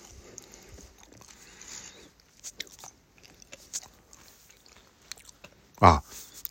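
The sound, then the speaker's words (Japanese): Crisp crunching and chewing of a rice cracker (senbei), a run of small dry bites and mouth sounds with one loud sharp crunch near the end, no talking. “せんべい食っててもいいんだよ”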